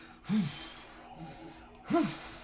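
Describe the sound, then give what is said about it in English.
Heavy breaths huff right into the microphone, two loud gasping bursts about a second and a half apart with softer breathy noise between them. “Move the mic away from your mouth.”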